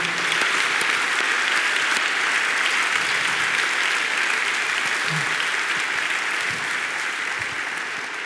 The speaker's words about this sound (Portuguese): Vamos aplaudir, vamos fazer festa, vamos lá.